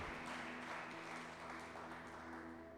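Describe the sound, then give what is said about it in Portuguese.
An audience bursts into dense, steady applause at the end of a prayer, given as thanks in the name of Jesus, many hands clapping together in a continuous roar with a faint low tonal hum beneath, sustained at full volume throughout. “É assim que nós oramos, te agradecemos e fazemos isso com uma salva de palmas, em nome de Jesus.”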